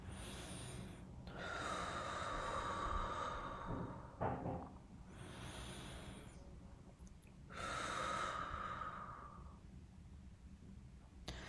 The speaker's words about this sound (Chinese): 噗一下把我推回去的那一刻，我整个人大口喘气，就是我的那个粗粗的喘气，我给大家再呼吸一下。